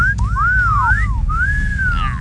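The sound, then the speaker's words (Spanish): A person whistles a quick run of sliding notes that swoop up and down, fairly loud, over a steady low background rumble. “Bueno, yo no sé chiflar, ¿Ok?”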